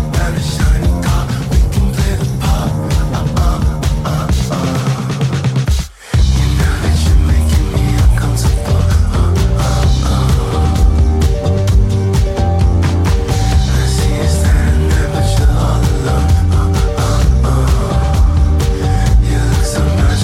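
A loud, dense song plays steadily with full instrumentation and a driving low end, broken only by a sudden split-second dropout early on before the music surges back. No one speaks.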